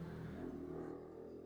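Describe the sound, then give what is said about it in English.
Motorcycles rumble faintly in a street in Brooklyn, New York, a steady low engine drone with a slight pitch shift as they pass. No one speaks. “Now, if you guys hear some motorcycles in the background, I am in Brooklyn, New York, and I live in the walk up building.”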